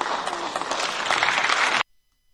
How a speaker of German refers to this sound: Ja, da gibt's Applaus für die europäische Sicht.